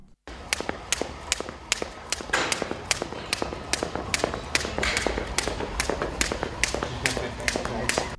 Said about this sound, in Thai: และเสียงปริศนาที่น้องๆได้ยินเมื่อสักครู่นี้นะครับ ก็คือเสียงของการกระโดดเชือกนั่นเองครับการกระโดดเชือกเนี่ยถือเป็นกีฬาอีกชนิดหนึ่งที่สามารถเบิร์นได้ดีเหมือนกันนะครับ